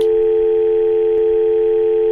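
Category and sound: signal or alarm, telephone dial tone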